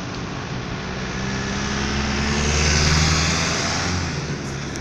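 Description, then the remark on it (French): A car rushes past close by outside the Faculty of Philosophy of the university in Niche, its roar swelling to a peak midway and easing off again, with a steady low engine hum and broad road noise throughout. “La voiture passe vite à côté de moi.”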